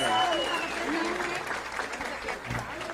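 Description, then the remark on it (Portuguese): A crowd applauds steadily for about three seconds for Maranhão governor Flávio Dino, a dense wash of many hands clapping at once, with scattered shouts and cheers rising over the clapping. “O nome dessa pessoa é o nosso governador Flávio Dino, a grande salva de palmas!”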